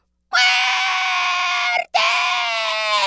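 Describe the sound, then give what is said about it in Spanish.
An elderly woman screams loudly and shrilly in two long, sustained cries separated by a brief gasp, piercing with no other sounds around, as she keeps shouting "¡Muerte!", calling for death. “siguió gritando la vieja.”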